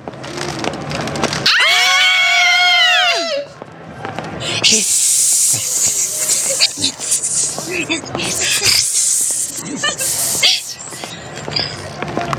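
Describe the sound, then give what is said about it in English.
A voice imitates a snake, hissing loudly and steadily for several seconds with a few brief breaks, after a short wavering, pitch-sliding vocal sound. “That's what snakes do.”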